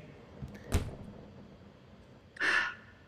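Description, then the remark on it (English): The door of a dorm room, room 214, opens: a sharp latch clunk, then after a pause a brief scraping, airy swing. Quiet against a low background hiss, with no voices. “I'm gonna go through the door”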